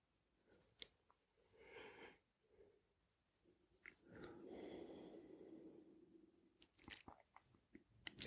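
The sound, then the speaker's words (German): A quiet yawn: a long, breathy drawn-out exhale in the middle, preceded by a shorter breath and surrounded by small mouth clicks and smacks. No one speaks. “Ja, Gähnen.”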